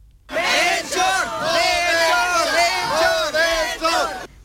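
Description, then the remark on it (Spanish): A large crowd at a cabalgata parade with 13 floats cheers and shouts continuously for a king, many voices rising and falling together in loud, sustained waves of excited calling and whooping. “El rey más vitoreado,”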